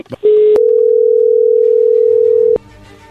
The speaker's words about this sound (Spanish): vamos a llamarle en este momento, no haga ruido, por favor, ahí se está marcando.